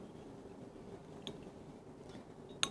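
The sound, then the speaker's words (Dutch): A faint, short pop of a gold cork easing out of a beer bottle, one small click near the end after a couple of quieter ticks, over low background hiss with no talking. “gooi je, je bierflesje dan maar open. Je eerste bierflesje. Met de gouden okay, kurk.”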